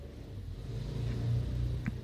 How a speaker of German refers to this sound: Jetzt fährt ein Motorrad draußen vorbei, um die Dramatik zu betonen.